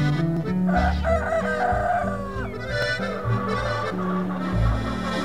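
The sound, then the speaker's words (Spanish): A rooster crows a few times over steady band music, its high, wavering calls rising above the instruments and bass, with no one talking. “Se oía el canto de los gallos.”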